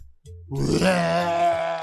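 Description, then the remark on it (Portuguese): A person mimics a loud, drawn-out burp with their voice, imitating a woman burping while bathing: one low, throaty, rumbling sound that swells quickly and holds steady for over a second, alone. “Ela tomava banho, dava uns arrotos que coavam na casa inteira.”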